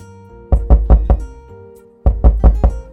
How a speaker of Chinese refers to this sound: 然后他就把我推出门外了，然后我就敲门。